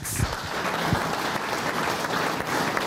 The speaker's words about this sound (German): Begleitet vom Applaus ist das helle, lichterflutete Schulgebäude heute offiziell eröffnet worden.